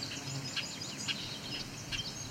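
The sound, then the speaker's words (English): A male bobolink, annoyed, gives short, sharp, deeper alarm calls, repeated about every half second over a steady background of insect buzz, fairly faint. “Oh, and this this deeper call is a bobolink, a male. He's calling, he's annoyed.”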